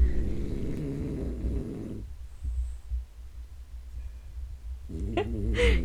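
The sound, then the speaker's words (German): A pet snores right next to the microphone: a long, low rumbling snore, a quiet pause, then another snore starting. No one speaks. “Kannst du bitte aufhören zu schnarchen? Du störst meine Aufnahme.”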